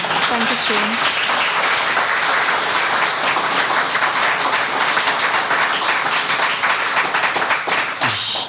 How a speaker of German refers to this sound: Ich glaube, das ist jetzt das erste Mal, dass in diesem Podcast Applaus am Ende zu hören ist.